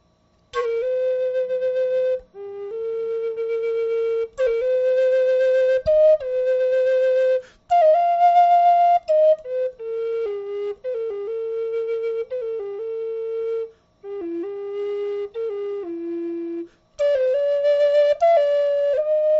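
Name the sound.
flute melody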